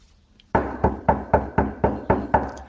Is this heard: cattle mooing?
no